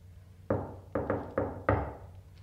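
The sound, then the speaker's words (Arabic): Five loud knocks on a door in an uneven rhythm: a single knock, then a quick pair, then two more, each with a short hollow ring, with no voices. “خبط الدليله افتح”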